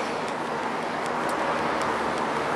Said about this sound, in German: Meine Güte, sind das Massen an Autos. Das gibt's ja gar nicht.